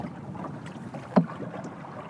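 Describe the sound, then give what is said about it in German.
A single paddle stroke dips and splashes into the dark, almost black water of the Onasjoki river at Levi about halfway through, set against a steady low murmur of water and light wind. No one speaks. “Man muss immer wieder nachjustieren, wenn man es nicht so drauf hat, den gleichmäßigen Schlag zu finden.”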